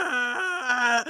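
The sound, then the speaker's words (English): A person voices a Balrog fire demon's groan: one sustained, wavering moan lasting about a second, dipping in pitch midway before rising and cutting off, with no words. “I chose the Balrog. Here is my logic because it would sound like this.”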